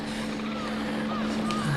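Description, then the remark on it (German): A helicopter drones steadily overhead, a constant low mechanical hum with a strong engine tone that holds at an even, fairly loud level throughout. “Ein Hubschrauber. Das wird der Suchtrupp sein.”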